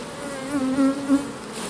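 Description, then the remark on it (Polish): Honey bees buzz in a steady, continuous drone that swells a little louder a few times, with no voices. “Czym bardziej pszczoła miodna, tym bardziej rabująca, bo ludzie, czym, czym masz bardziej miodną pszczołę, ona, to jest najlepszy rabun.”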